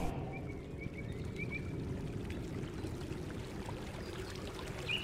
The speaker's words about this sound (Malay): Di hadapan kami, sungai Kem Kuala Boh mengalir jernih berkaca-kaca dapat kami lihat ikan yang berenang-renang di dalamnya.